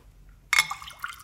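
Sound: water dripping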